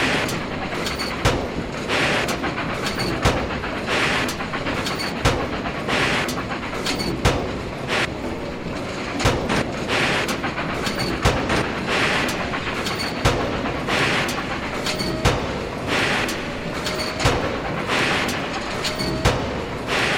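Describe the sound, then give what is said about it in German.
Loud, continuous industrial clatter and rumble from the large buildings of a locomotive factory, with repeated metallic bangs and clanks over a dense mechanical roar, steady throughout. “Jetzt gerade ist es so laut aus den großen Häusern von der Lokomotivenfabrik.”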